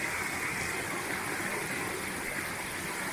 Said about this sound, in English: water cascading down. We're going to continue on up. Comes over from the right here also. Continues on down.